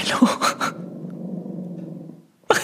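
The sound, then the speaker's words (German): A low, steady rumbling growl from a dog sitting under a table, growling at something outside, lasts about two seconds, following a brief burst of speech and fading out before another voice cuts in. “Der sitzt, der sitzt unterm Tisch und knurrt irgendwas an, was nach draußen.”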